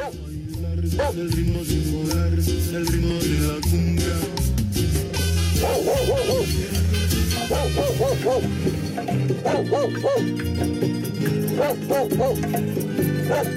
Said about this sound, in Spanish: Ahí están ladrando mis perros.